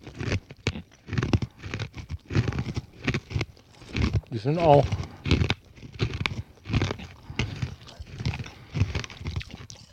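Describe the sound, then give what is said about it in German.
Loud, irregular crunching of candied macadamia nuts being chewed, a steady run of sharp cracks and grinding bites, with brief bits of speech mixed in. “ich höre nichts, da knackt in meinem Mund.”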